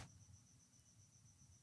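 A lone cricket, nicknamed Pepe Grillo, chirps steadily in a fast, even trill in the background of a live online broadcast, faint, over a low background rumble with no voices.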